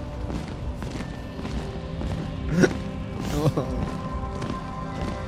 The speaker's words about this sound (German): Die Schritte hören nicht auf. Es scheinen wohl sehr, sehr viele Menschen äh, oder Wesen zu sein, die dort durchmarschieren.